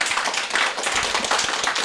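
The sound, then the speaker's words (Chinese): An audience applauds to welcome a singer before a song, a dense, steady wash of many hands clapping at once with no voices over it, holding at an even, fairly loud level for about two seconds. “来，咱们掌声欢迎。”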